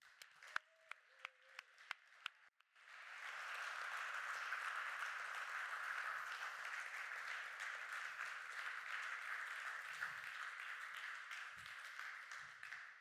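A few scattered claps start things off, then an audience breaks into loud, sustained applause for the team who made a trailer and slides, a dense steady roar of many hands clapping that holds for about ten seconds.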